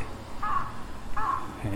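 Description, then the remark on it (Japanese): Two harsh crow caws, evenly spaced about three-quarters of a second apart, over a low background rumble. “こういったカラスの声も出さなきゃいけない”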